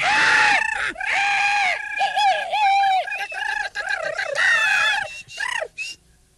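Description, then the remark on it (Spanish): A loud, continuous clamor of overlapping shrill squawks and cries, like many birds quarreling at once, likely voiced by people imitating them, with brief gaps toward the end. “Hasta el más insignificante de los pájaros se creía con derecho a ser el rey, y todos alegaban armando terrible a la araca.”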